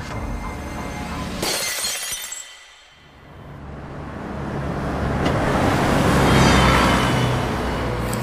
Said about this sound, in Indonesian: refleks ngambil asbak ada asbak di situ bang pecahin kaca di tengah itu pecahin keluar